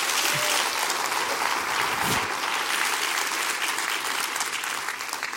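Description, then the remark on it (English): A crowd claps steadily when asked to clap their hands during a sermon, a dense wash of many hands sustained throughout and tapering slightly at the end, with no voices standing out. “Come on, clap your hands with me right now.”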